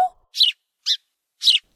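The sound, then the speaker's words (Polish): Three short, bright sparrow chirps in an uneven rhythm, moderately loud, with brief silences between them and no other sounds around. “Może zapytam moich tasich kolegów wróbla i dzięcioła?”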